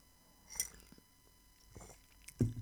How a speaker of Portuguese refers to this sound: Ah, fazer as minhas pausas para chá enquanto falo. Desta vez não tenho água.